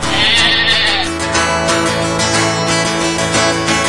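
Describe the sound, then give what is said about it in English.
A sheep bleats loudly and steadily over a dense, rhythmic musical backing that continues without pause for the whole few seconds. “the sheep it did bleat.”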